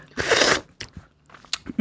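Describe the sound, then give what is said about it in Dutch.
Crunching of a piece of green bean being bitten and chewed: a loud burst of crunch followed by a few shorter, sharp chewing crackles, with no talking. “Sorry, misofonen. Een soort stukje snijboon of zo.”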